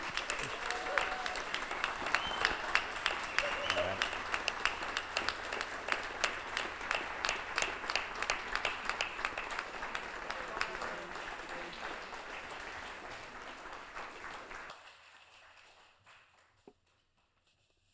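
An audience claps steadily in a dense, sustained round of applause that gradually thins out and fades, ending in near silence.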